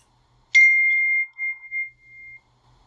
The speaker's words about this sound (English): Minus five points to whoever just had their phone buzz. Uh, that was me. Okay, minus five points for whatever. My dad? Huh? My dad sent me a thumbs up emoji.